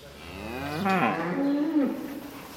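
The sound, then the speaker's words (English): A cow on a dairy farm with 99 cows to milk moos once, loud, a long drawn-out low call that rises and then sinks, with faint farmyard background noise underneath. “is a farmer with 99 cows to milk.”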